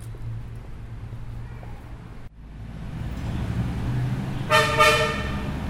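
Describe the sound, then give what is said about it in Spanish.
A loud car horn, reaching 88 to 89 decibels, blares briefly over a constant low rumble of city street traffic, standing out sharply against the steady roar of passing vehicles. “bocinas llegan a 88, 89 decibeles.”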